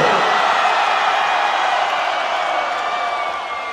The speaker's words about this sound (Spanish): Oye, antes que nada me gustaría pediros un favor, de verdad, un grito, pero de esos que haga temblar Zaragoza, de esos grandes, grandes, grandes, para nuestro Morning Show de 6 a 10, de lunes a viernes, en Máxima FM